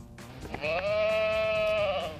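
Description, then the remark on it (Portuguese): A single sustained sheep bleat, fairly loud, with a wavering nasal tone lasting nearly two seconds, heard alone without any talking. “Podem responder, carneiros amigos,”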